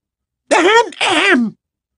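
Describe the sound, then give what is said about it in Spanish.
A voice imitates a throat clearing, as Ginny imitating Professor Umbridge, with two short, voiced bursts in quick succession and a brief pause between them, fairly loud with no other sound around. “Carraspeó Ginny, imitando a la perfección a la profesora Umbridge.”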